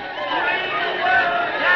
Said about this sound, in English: Oh, listen to that crowd.